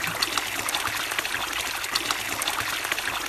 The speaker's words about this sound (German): Das sprudelnde kalte Nass spült die Anstrengungen der ersten Kilometer schnell davon.